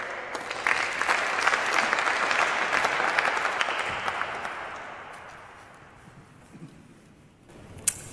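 An audience claps steadily in a dense wash of applause that gradually thins and fades out toward the end, with a single sharp clap standing out near the close.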